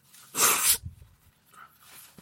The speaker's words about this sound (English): I'm so sorry for blow my nose on the mic. Uh, I will say my allergies are so bad here in Louisville.